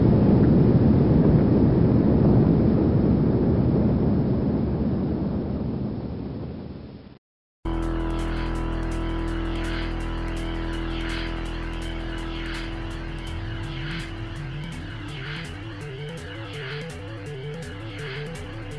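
A deep, powerful roar of the Apollo 11 rocket engines at liftoff, at 9:32 Eastern time in the United States, rumbles loudly for about seven seconds, then fades and cuts off abruptly, giving way to music with droning tones and rhythmic pulses.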